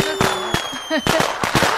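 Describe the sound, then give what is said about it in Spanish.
A loud, rapid string of firecracker explosions, sharp cracks and bangs going off irregularly one after another, with a faint steady whistle-like tone running underneath. “Yo tengo dos familiares que por petardos perdieron dos dedos y no pasa nada. Además, ya estoy ensayando.”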